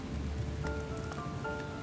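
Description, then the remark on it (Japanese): Steady rain patters on a tent at a motorcycle campsite in Japan, a dense drumming of drops with a few sharper taps standing out, continuous and fairly loud with no voices. “考えものですねいや雨は困りますね”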